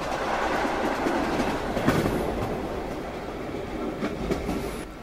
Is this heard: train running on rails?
yes